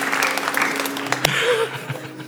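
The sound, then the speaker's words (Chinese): A church audience claps for a couple of seconds, a dense, steady patter of many hands at moderate loudness with one sharper crack partway through, then the applause thins out. “说说第一次来我们教会，觉得为什么这么简单的中文还需要拍手？”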